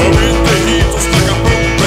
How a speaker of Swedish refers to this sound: Vi får köra det korta, korta Ja. introt, korta punknyheter. Introt som låter så här.